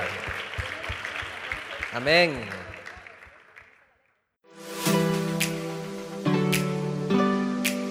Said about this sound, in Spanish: Un fuerte aplauso a Cristo chicos. Un fuerte aplauso. No, no se escucha. Más fuerte, más fuerte.